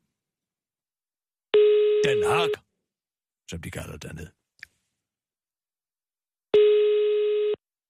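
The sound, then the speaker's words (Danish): Two steady telephone ringing tones on an outgoing call to Europol in The Hague, about five seconds apart, each a sustained buzzy tone lasting roughly a second, with a short stretch of speech and a click between them. “Ringer du til, til Hag nu?”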